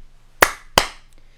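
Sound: hands clapping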